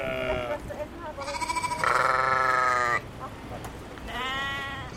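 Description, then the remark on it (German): Several sheep bleat on the salt meadow of a Hallig, a small low island in the North Sea, in overlapping calls, one long loud bleat in the middle and shorter ones before and after, over a soft outdoor background. “Auch die vielen Schafe gehören zu den Halligbewohnern.”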